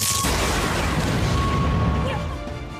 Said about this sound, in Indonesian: Lalu, saat itu juga tiba-tiba muncul kilatan kuning disertai dengan ledakan.